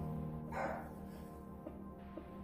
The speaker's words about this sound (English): And as you can tell, the dogs are barking in the background. My security team letting me know that my Costco delivery is coming, so I'm really happy about that.